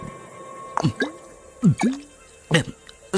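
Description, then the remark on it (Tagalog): Water being poured or drunk: a handful of short, wet gulping bursts, roughly four of them spaced unevenly over a few seconds, fairly loud against a quiet background. “tubig.”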